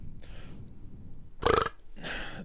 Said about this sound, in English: Back at our roots, we're all belching all the time